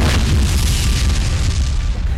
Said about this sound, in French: L'explosion brutale fiche toute l'équipe, mais ce bruit n'est pas ordinaire, il est plus proche d'un sifflement.